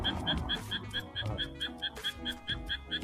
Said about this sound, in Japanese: あめっちゃカエル鳴いてる。カエルカエルが多分カエル。